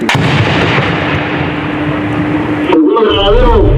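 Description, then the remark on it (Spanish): A sharp, loud gunshot cracks out and rolls into a long, booming rumble lasting a couple of seconds before a man's voice starts speaking, fired during Mexican Defense Secretariat (Sedena) firearms training of military personnel of the 12th Military Region. “Cuando estuvieron tirando a los ahí se va el disparo.”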